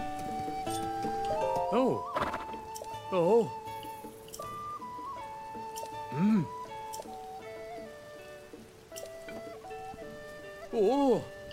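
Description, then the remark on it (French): A horse whinnies several times, short wavering neighs spaced a few seconds apart, heard over steady background music with a few soft voices underneath. “un cheval.”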